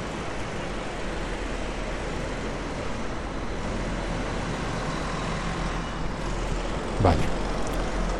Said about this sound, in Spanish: Mientras abro la puerta. Mucho ruido en la calle.